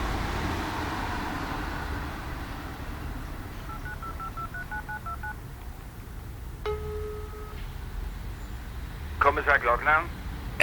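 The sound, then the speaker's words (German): A rapid series of short electronic keypad beeps as a phone number is dialed on a mobile phone, followed by a steady ringing tone, all over a constant low background rumble. “Dort zog er sein Handy aus der Tasche und drückte rasch einige Tasten.”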